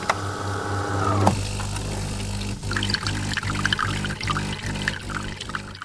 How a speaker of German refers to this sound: So läuft es bei mir jeden Morgen. Ich gehe ins Bad und drehe den Wasserhahn auf, anschließend Wasser rein in die Kaffeemaschine.